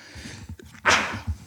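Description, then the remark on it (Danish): A single sharp sneeze bursts out, a quick explosive blast rising over a low background murmur, then fading quickly. “Øh, Prosit.”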